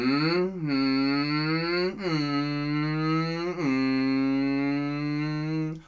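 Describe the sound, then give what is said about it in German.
A voice imitates a motorcycle engine with a loud, continuous buzzing vroom lasting about six seconds. The pitch swoops and dips in three revving surges before cutting off. “Aber Motorrad würde ich sagen, ist das hier.”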